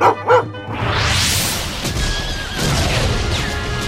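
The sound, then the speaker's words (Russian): A battle sound effect of Russian guns opening fire to storm the fortress of Izmail at dawn on a December day: a brief horse whinny opens, then a loud, dense roar of cannon fire and rumbling din fills the rest, continuous, with no voices. “Пушки так и болят! Грохот какой!”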